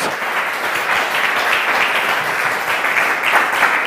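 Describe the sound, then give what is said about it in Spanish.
A crowd applauding steadily, a dense wash of many hands clapping at an even, fairly loud level with no pauses and no voices standing out. “Dale un aplauso gigante.”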